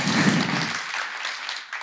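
A crowd applauds with dense, steady clapping, a bright wash of many hands that holds at an even loudness throughout, with a fuller low-end rumble at the start.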